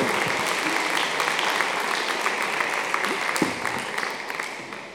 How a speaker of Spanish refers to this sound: Dele un aplauso al Señor con todo su corazón si eso es cierto.